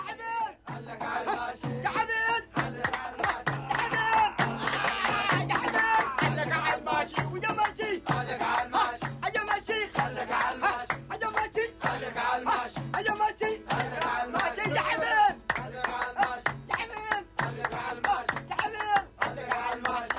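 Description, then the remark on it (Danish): A lively wedding celebration in Sinai, as Rebekka marries Isak, with loud, joyful shouting voices, including old Abraham jumping around and shouting with joy in the foreground, continuous and energetic throughout, with scattered claps mixed into the festive commotion. “Det er faktisk øh, gamle Abraham, man hører springe rundt og skrige af glæde her i forgrunden.”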